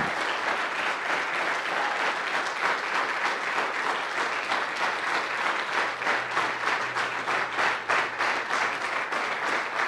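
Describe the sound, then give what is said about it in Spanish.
An audience bursts into sustained applause to receive the word of God, a dense, steady wash of many hands clapping for about ten seconds with no voices standing out. “Vamos a recibir la palabra de Dios bien fuerte, con un aplauso.”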